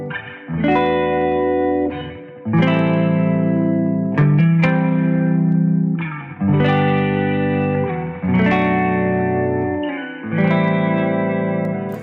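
A loud, distorted electric guitar-driven rock song, newly released at the end of 2022, plays with heavy chords changing every couple of seconds, drenched in effects and reverb, with no vocals.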